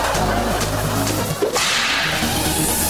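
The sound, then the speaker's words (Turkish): A single sharp whip crack sound effect, played during a radio traffic report, snaps out over a steady low rumbling bed, with a brief whooshing swish around it; no one speaks. “Bir kamçı alayım. Kamçı. Peki. Kırbaç.”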